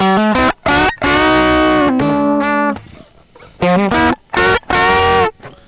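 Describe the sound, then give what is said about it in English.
A loud, heavily distorted electric guitar riff played through effects pedals: a few sharp stabbed chords, a long ringing sustained chord, then a brief pause and more punchy choppy hits, with no one talking. “See, I'm gonna start just stealing everyone's riffs.”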